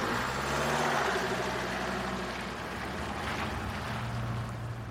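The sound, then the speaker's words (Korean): A delivery truck loaded with boxes idles steadily as it sets off on Christmas Eve while heavy snow begins to fall, a continuous low, throbbing rumble with a mechanical hum that holds at an even loudness throughout, with no voices. “나는 박스들을 트럭에 싣고 출발했다.”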